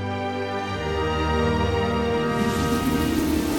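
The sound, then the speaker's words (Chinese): Heavy storm rain with strong wind pours down steadily onto a ship's deck around eight in the morning, over a sustained droning tone, the downpour swelling into a louder, broader hiss partway through. No one speaks. “早上八点左右，可怕的暴风雨激烈地落在甲板上，水手们已经把大多数的帆降了下来，只剩下坚韧的小三角帆。”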